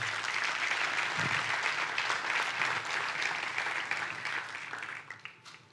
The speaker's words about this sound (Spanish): Dele un fuerte aplauso a Dios por eso.